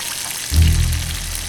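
Steady crackling hiss of oil sizzling in a frying pan in a home kitchen while someone cooks a simple meal at about eight in the evening. Halfway through, a low, humming rumble swells in beneath it and holds to the end. No one speaks.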